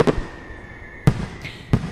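Three sharp firecracker bangs go off at uneven intervals, each a loud, cracking burst with a brief ringing tail, separated by quieter hiss.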